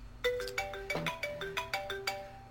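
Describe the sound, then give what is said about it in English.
A melodic phone ringtone plays a quick series of bright, chiming notes in a steady rhythm, clear, with no one talking over it. “I was just reaching for this phone when it rang.”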